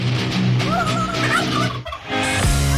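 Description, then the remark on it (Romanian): A listener's recording of a person imitating a turkey's gobble: a loud, warbling burst of rapid throaty yodels that briefly breaks off, then resumes in a steadier, buzzing tone. “Uh, avem înregistrări de la ascultători care pur și simplu se transformă în uh, curcan”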